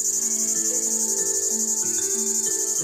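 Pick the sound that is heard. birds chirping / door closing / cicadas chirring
cicadas chirring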